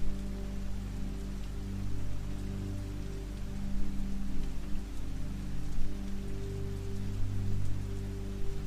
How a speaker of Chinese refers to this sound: 潺潺的溪水和清脆的鸟鸣愉悦着你